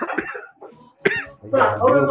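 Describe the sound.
A couple of rough, raspy coughs in short bursts, one near the start and a sharper one midway, followed by a person's voice speaking.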